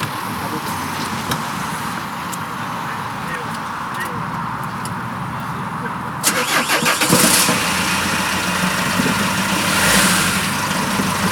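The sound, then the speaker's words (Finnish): A steady low rumble gives way midway to a rapid chattering crank as a car engine starts up, then settles into an even idle that hums on to the end. “pistetään käyntiin sen.”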